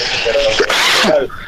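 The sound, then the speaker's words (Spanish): A single loud sneeze: a short voiced intake of breath, then a sharp, breathy burst trailing off into a brief vocal tail. “Salud.”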